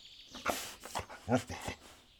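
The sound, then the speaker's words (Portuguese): A dog pushes its nose into damp ground and sniffs in several quick, breathy bursts, ending in a short, huffing snort. It is fairly loud, with no other sounds around it. “O cão enfiou o nariz no chão úmido, inspirou fundo e bufou.”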